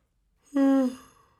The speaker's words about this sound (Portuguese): Ai que bocejo. Ai que bocejo bom.